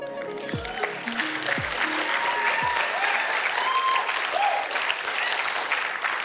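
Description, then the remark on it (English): Sustained applause from a sizable audience fills the whole stretch, dense and steady. A few sliding electronic tones sweep downward near the start over the clapping. “Hey, can you just give it up one more time if you've been here uh,”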